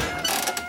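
A slot machine lever being pulled, a brief mechanical ratcheting clatter of rapid clicks over a steady whirring rattle, moderately loud with no voices.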